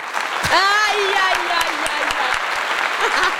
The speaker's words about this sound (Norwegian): Ja. ja det fortjener faktisk en uh, big applaus. Ja, takk.